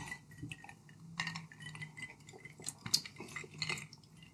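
Glasses clink together in a toast, a few light chimes with one brighter, sharper clink partway through, over quiet background clatter and no talking.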